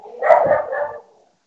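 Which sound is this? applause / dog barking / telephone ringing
dog barking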